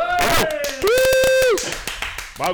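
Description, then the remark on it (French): A short burst of applause welcoming a guest on a show, sharp repeated claps running under loud sustained musical tones and voices, fading out after a couple of seconds. “on applaudit là.”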